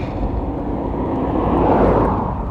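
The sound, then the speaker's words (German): A steady low rumble of road noise swells as a car passes by on a country road, heard while cycling, growing louder near the middle and then easing off, with no voices. “Ich fahre eben auf einer Landstraße, da fahren manchmal Autos vorbei”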